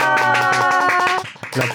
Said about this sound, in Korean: 와. 어. 어, 박수 소리 엄청. 어, 이렇게 네. 환대해 주셔서 네. 감사합니다.